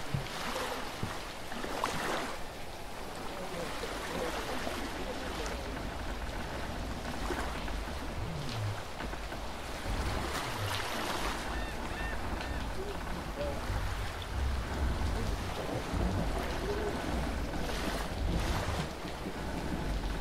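A stormy sea roars steadily for the whole stretch as the tide rises, rough water churning and sloshing against a sailing boat that rocks hard, while strong wind gusts through, loud with no voices.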